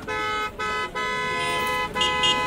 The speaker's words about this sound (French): Un concours de klaxons se fait entendre proche du carrefour vers lequel je me dirige.